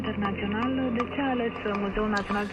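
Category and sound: signal or alarm, radio program theme jingle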